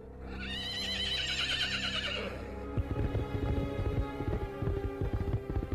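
A horse gives a loud, wavering whinny lasting a couple of seconds, then hooves pound in a quick galloping rhythm as its rider gallops away along a road, continuing steadily to the end, with no voices present.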